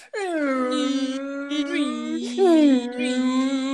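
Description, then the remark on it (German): A steady electric toothbrush, switched on for the first time, buzzes continuously, its pitch shifting and wavering a few times like changing modes, with a brief louder, higher-pitched stretch near the end. “das Problem ist mit dieser Zahnbürste, wenn ich mir die Zähne putze”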